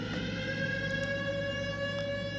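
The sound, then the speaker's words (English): A siren sounds continuously, a steady, sustained wail holding one rich pitch without rising or falling, moderately loud and unbroken from start to finish with no voices over it. “Here comes that siren, and even though we changed that clock”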